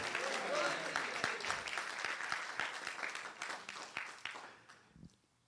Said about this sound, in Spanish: Si tú lo crees, dale un aplauso fuerte al Señor.